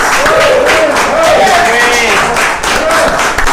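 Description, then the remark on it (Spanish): An audience applauds steadily for a few seconds for deputy Aldo Dávila, a dense, loud wash of clapping with faint voices and cheers mixed in. “Gracias, mi diputado. Un aplauso.”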